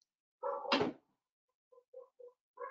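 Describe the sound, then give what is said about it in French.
In the morning, a dog lets out one loud bark, then a few short, quieter yelps follow in quick succession as two female dogs bark together, with no talking. “C'est le matin ici, il y a du bruit et il y a des chiens qui aboient, tout ça.”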